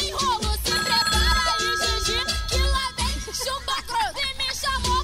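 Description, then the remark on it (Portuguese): A phone rings with a loud, melodic ringtone over a steady thumping beat, playing continuously for several seconds without being answered. No one speaks. “Menina, essa rapariga se meteu aonde que não atende esse telefone, hein?”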